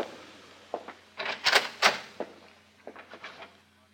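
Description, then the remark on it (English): A door opens with a series of short scraping and rattling bursts, the loudest clunks falling in the middle, then softer knocks trailing off. No one speaks. “I've been sitting here kind of savoring the time when you'd come through that door and I'd put a bullet in your head.”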